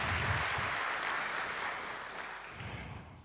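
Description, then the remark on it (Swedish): A church audience on Easter Day applauds the singers steadily, a dense wash of many hands clapping at an even, moderate level that stays sustained and fades slightly toward the end, with no voices over it. “Då kan vi få en liten applåd.”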